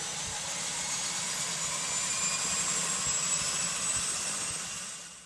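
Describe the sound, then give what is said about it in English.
An aircraft's right jet engine runs steadily after light-off at 12% fuel, a loud continuous roar with a high whine on top, holding level throughout with no voices. “Right engine is turning.”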